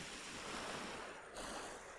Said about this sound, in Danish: Så er der noget fedt at komme ud af sådan noget det man kalde sådan barsk vintervejr. Og så mærke de her bølgeskuld.